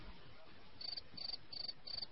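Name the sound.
crickets chirping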